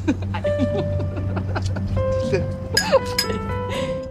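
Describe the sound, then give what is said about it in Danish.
Sparkling wine is poured into glasses by two couples from the show Gift ved første blik as they meet, glasses clinking with bright ringing tones, while several people giggle and chatter throughout. “ja, der bliver fniset rigtig meget her, og det er faktisk bare nogle bobler, som de er i gang ved at hælde op i deres glas, da de har mødt hinanden.”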